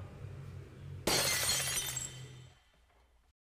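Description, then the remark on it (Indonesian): A sudden loud crash of spoons falling and scattering in an empty dining room, clattering together, the bright metallic rattle fading out over a second or so against a low background hum. “Dan pas dicek ke ruangannya, ternyata sendok itu udah bertebaran jatuh di ruang makan.”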